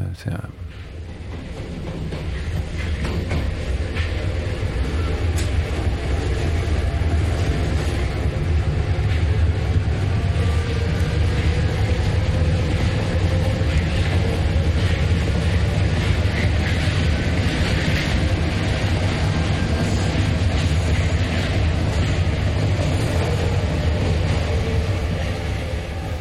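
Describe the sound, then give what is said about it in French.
A steady, loud rumble fills the inside of a moving metro car, with a deep low roar and hissing wheel noise running continuously, and faint indistinct voices blending into the din. “Pascal Boisise, on est dans le métro.”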